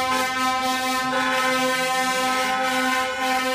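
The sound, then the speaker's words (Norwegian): Car horns honk in protest against road tolls during the 2019 election campaign in Vestland, a loud sustained blare that holds steady for several seconds, several horns seemingly sounding together without a break. No one speaks. “Og tuting mot bompenger.”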